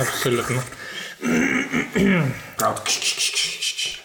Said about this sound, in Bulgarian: Това е звука. Това е звукът на пари.